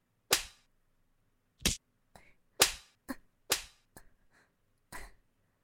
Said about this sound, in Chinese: 被我揪着耳朵扇耳光，还不肯吗？我看你的耳朵是不够疼，狠狠的揪你的耳朵，扇烂你的小脸。